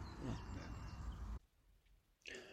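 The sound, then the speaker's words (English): Faint outdoor birdsong on a spring morning at Seale-Hayne, a few high chirps and trills over a broad wash of background noise, cutting out briefly before the chirping returns near the end. “If you could hear him over the bird song, what a lovely place Seale-Hayne is on a spring morning.”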